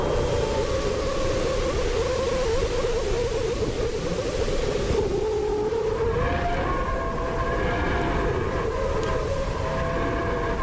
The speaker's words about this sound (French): Voici ce qui a été enregistré dans l'espace cette semaine par une sonde américaine spécialisée dans le Soleil qui s'appelle Parker Solar Probe. Écoutez le vent solaire.